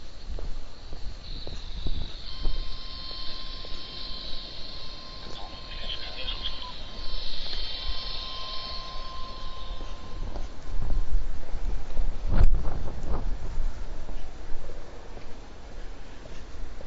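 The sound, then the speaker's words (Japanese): Outdoors among steady insect chirring, a two-way radio (transceiver) crackles: a sharp squelch click followed by a brief burst of tinny, garbled transmission, from one of about three transceivers set out by a man sitting on a folding chair. “今無線の音聞こえましたなんかね、椅子、組み立て椅子みたいなんで座って、おじさんが一人座ってたんですよ。”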